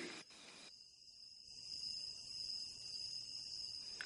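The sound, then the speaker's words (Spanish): A dense chorus of countless crickets chirps steadily outdoors in the early hours of the night at about 40 degrees north latitude, a continuous high-pitched trilling from many insects at once, with a brief soft rustle near the start and no talking. “supongo que se colarán en la grabación los, pues, los innumerables grillos que hay por los alrededores.”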